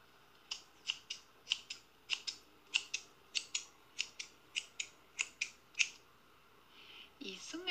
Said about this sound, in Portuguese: é a tesoura